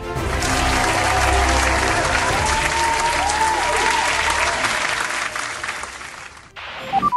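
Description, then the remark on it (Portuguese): Sustained applause from a sizable crowd, given for Norris and Leclerc's brilliant race start, a dense steady clatter of clapping that holds for several seconds before tapering off abruptly near the end. “Mas enquanto isso, a, as palmas do dia vão para Norris e Leclerc pela largada genial.”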